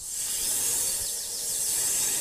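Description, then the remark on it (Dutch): A large snake in a forest hisses in one long, steady breathy rush lasting about two seconds, fairly loud, with no voices or other sounds around it. “De vrouw trok aan een aardbei en plots kwam er een grote slang aan en probeerde ze de vrouw te bijten.”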